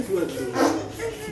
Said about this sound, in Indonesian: itu guys buat yang dengar itu suara balon ya balon kalau dilepas anginnya begitu